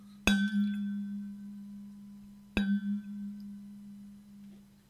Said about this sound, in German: So, das war der Gong zur Folge.